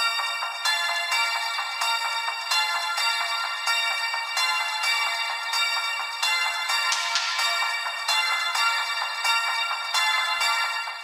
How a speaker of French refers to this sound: un tube des années 80 joué dans un centre commercial vide.